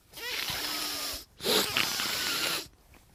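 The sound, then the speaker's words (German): Two long, congested snorts drawn through a blocked nose, fairly loud, separated by a brief pause, with no talking. “So klingt das, wenn die Nase zu ist.”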